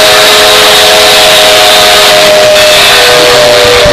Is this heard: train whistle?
yes